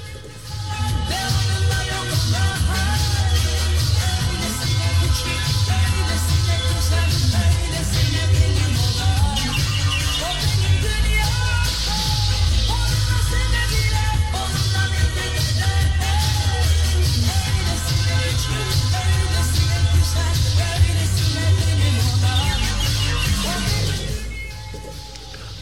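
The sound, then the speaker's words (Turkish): A pop song plays at full volume with a thick, steady bass line and dense instrumentation, running continuously for about twenty-five seconds before trailing off at the very end, with no one talking over it. “Son bir kez şöyle bir dinleyelim.”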